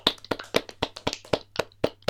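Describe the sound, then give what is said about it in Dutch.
A short round of hand clapping for the winner of a points ranking: about nine sharp, crisp claps in a steady, fairly quick rhythm, with no talking over them. “Ja, applausje.”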